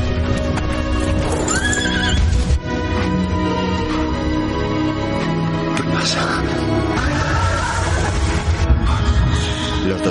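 Horses neigh and whinny loudly amid a steady clip-clop of hooves, with several animals and a busy, dense background throughout.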